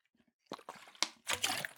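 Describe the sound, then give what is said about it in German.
A short sip of water: a few soft slurping and sloshing bursts, then a brief wet swallow and liquid gurgle, all quiet and over in under two seconds. “Ich nehme noch einen kurzen Schluck, kurzen Schluck Wasser und danach fangen wir an.”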